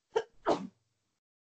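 A single sneeze with a short inhaled lead-in, then a sharp explosive burst, moderately loud, followed by silence and the start of another voice at the very end.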